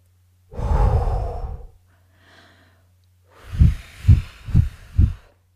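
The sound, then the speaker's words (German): A breathy blow sounds for about a second, then after a short pause come four quick, rhythmic puffs of air, like someone blowing dust off an object. “Ich habe gerade den Staub von diesem Podcast entfernt,”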